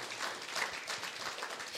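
A crowd applauds, dense overlapping claps forming a steady, bright wash of sound that holds at an even level throughout, with no talking over it.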